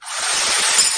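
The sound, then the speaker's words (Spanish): Renovation work noise: a loud, steady rasp like wood being sawed or sanded, continuous for about a second with no talking. “Este es el ruido de las reformas.”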